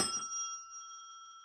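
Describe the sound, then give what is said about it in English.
A small old hand bell is struck once with a bright, shrill clang, then rings on in a sustained metallic tone that slowly fades, with no talking. “That's the old bell.”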